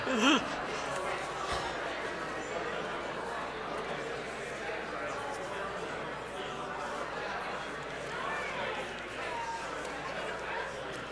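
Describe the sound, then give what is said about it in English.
A dense wash of overlapping crowd chatter fills the whole stretch, steady and lively, with scattered chuckles and laughter rising out of the babble and no single voice standing clear. “a rowdy crowd.”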